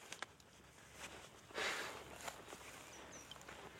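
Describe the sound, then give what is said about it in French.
Soft, wet footsteps of bare feet squelch through mud at an uneven pace, with one louder sucking squish in the middle. The steps are quiet, and a faint chirp sounds near the end. “J'adore marcher dans la boue.”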